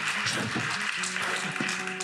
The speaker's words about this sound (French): Mais merci à vous, c'est moi que vous applaudis.